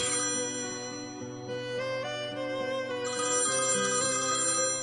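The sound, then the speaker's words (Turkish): A phone rings with a bright, melodic electronic ringtone, its tonal pattern repeating steadily for about five seconds, loud with no talking over it. “Bu arada telefon çaldı ama bu telefon sanıyorum canlı yayın içinde Neyse onu atlayalım.”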